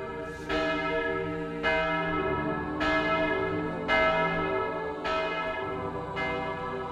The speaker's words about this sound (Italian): Al suono delle campane, la folla si disperde in silenzio, mentre un uomo vestito di nero ricopre la bara di terra umida.